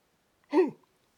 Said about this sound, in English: But uh, you know, podcasting right now making me yawn. I'm not sleepy, but I am yawning and that's something you have to listen to.